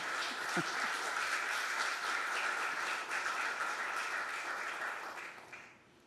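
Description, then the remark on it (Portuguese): Sustained applause from a crowd, a dense wash of many hands clapping at steady loudness for several seconds before tapering off at the end. “Você vai aplaudir, que eu sei que vai.”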